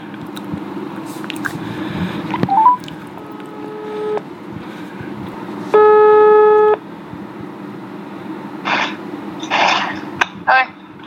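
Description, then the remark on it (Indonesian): A phone's ringback tone sounds while a person calls a friend: two long, steady electronic tones with a pause between, over a constant background hum, followed by a few brief rustling noises. “gue coba telepon temen gue yang pertama dulu lah ya”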